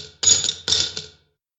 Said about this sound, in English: we don't have a sound effect, do we? Spend my money. Do we have anything? Coins, maybe? Double coins? That might work. There we go.